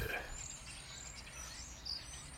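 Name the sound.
birds singing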